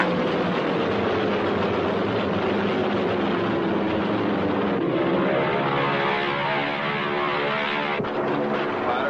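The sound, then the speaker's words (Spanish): Loud, continuous roar of warplane engines approaching from the 9 o'clock position fills the scene, a dense droning rumble with a low tone that slowly sinks in pitch as the aircraft approach. No one speaks. “Aviones a las 9 en punto, en camino.”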